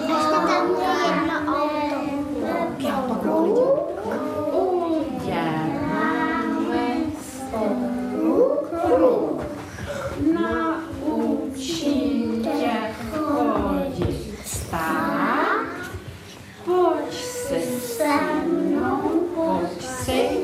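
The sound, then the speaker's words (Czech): Several young children chatter and call out over one another with high, lively voices, continuous, like kids busy at play together, at Fabiánek, a preschool on the ground floor of a home for seniors in Mníšek pod Brdy. “Takže tady máme malé dětičky.”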